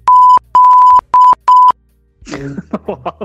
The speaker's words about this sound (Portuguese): Mano, tá louco. É. Vai ter que meter o pi aí.